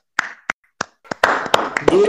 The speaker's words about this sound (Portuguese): Palmas, gente.